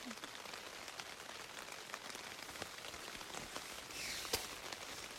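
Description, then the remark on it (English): Steady rain patters on the canvas of a teepee tent in the countryside, a dense hiss of drops with sharper individual taps scattered throughout and a brief heavier gust near the end. “just got to tear this teepee down. If it stops raining.”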